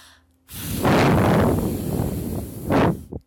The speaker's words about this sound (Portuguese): Imagine uma mesa bem empoeirada. Agora sopre com muita força em uma das quinas.